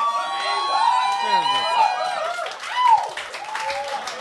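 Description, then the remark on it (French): A crowd applauds steadily, with voices calling out and rising and falling whoops layered over the clapping throughout. “Ce monde-là va applaudir de n'importe quoi.”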